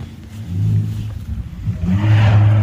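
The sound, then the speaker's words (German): A car parked in front of the house revs loudly, its low rumble climbing twice with a rising throaty roar, with no talking over it. “Aber jetzt haben wir noch den Ton äh, vom Stalking-Auto vor der Tür.”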